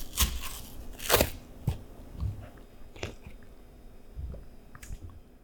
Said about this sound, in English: Should you and I commence the interview by cracking open our cartons? That sounds perfect.